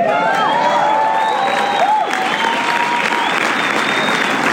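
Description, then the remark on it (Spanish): Loud, sustained applause from a crowd, dense steady clapping filling the whole clip, with high voices whooping and cheering over it. “Les pido un aplauso fuerte para mi niña juicio”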